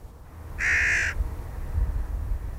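A hooded crow gives one harsh, drawn-out caw lasting about half a second, loud, over a steady low rumble of background noise.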